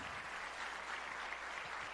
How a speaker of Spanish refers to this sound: Dele un aplauso a mí, a mi niño lindo.